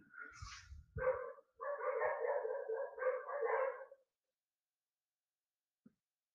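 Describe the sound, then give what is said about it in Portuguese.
A dog barks loudly in a quick string of harsh, overlapping barks for a few seconds, then falls silent; no one speaks. “O cachorro latindo pra caralho, mano.”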